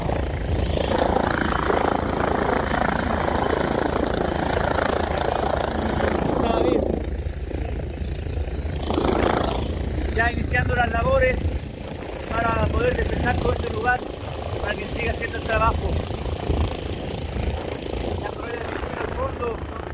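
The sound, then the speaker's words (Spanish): A helicopter that has just landed on snow at Yelcho base on Dummer Island, Palmer Archipelago, runs its rotors and engine with a loud, steady churning roar and dense low rumble, its rotor wind lifting the snow as passengers get out. Voices can be heard faintly beneath the noise. “Bajamos rápidamente y con mucho cuidado nos alejamos del helicóptero.”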